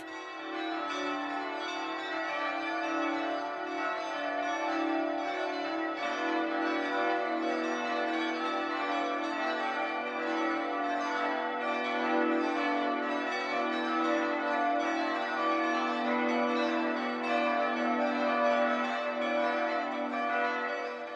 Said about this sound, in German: BR Heimat, 12 Uhr läuten. Es ist 12 Uhr. Das Mittagsläuten kommt heute aus St. Lorenz in Nürnberg.